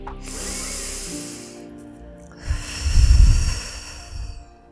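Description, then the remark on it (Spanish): A slow, hissing deep inhale through the nose, then a fuller, breathier exhale out through the mouth, taken before moving on to the next round of an exercise, with no talking over it. “Haz otra respiración profunda inhalando por la nariz y exhalando por la boca antes de pasar a la próxima ronda.”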